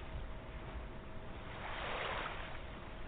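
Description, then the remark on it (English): Ocean waves wash steadily in a continuous hiss, swelling into a fuller surge midway before easing back, fairly soft with no voices present. “Some waves are powerful and others smooth and rippling.”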